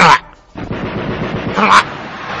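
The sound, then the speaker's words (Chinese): Rapid machine gun fire from diving enemy bomber planes during an air raid rattles in a dense, continuous stream, with two sharper, louder blasts, one at the very start and another shortly before the end. “天天要躲防空洞，他就在那里，但是听得到外面的声音，这实体的那个敌敌人飞机俯冲的时候，轰炸机啊，那个机枪的声音”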